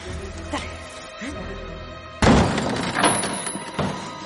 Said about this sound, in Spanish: Jonathan patea la puerta.